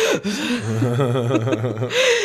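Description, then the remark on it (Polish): A voice imitates a sharp intake of breath after holding it, a quick gasp, then slides into a short, breathy chuckle and exhales, all fairly loud. “łapię się na tym na przykład, że w momencie, kiedy mam do zrobienia kreskę, która chciałabym, żeby była prosta, to wstrzymuję oddech.”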